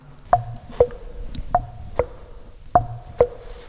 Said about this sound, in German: Und wenn man jetzt zwei dieser Säulen schlägt, aber es funktioniert nur bei zweien, dann hört man förmlich sozusagen den Kuckuck rufen. Das versuche ich jetzt einfach mal.